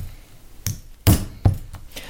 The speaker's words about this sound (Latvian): Ar to taisa caurumu, ja? Tiek paņemts milzīgs āmurs. Jā. Un caurums gatavs. Cik vienkārši, vai ne?